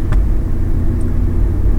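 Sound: car driving on road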